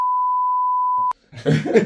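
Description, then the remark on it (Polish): A loud, steady censor bleep holds for about a second and cuts off with a click, followed by a short pause and then a brief burst of rough, breathy noise. “piknij to.”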